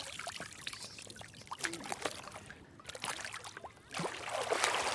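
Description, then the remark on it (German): Water splashing and sloshing in irregular bursts as a woman tries to stay underwater, making swimming movements while being pushed back up, with gurgling between splashes and no voices. “Tina ist unter Wasser und”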